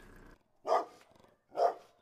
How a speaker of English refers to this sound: but were prevented from entering by the family's dogs, barking ferociously in the yard.